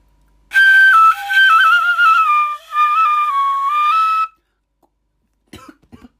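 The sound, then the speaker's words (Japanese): A shinobue bamboo flute plays a short, breathy melody of high, wavering notes that step up and down for about four seconds, followed by a pause and a brief cough. “この素晴らしき篠笛の世界”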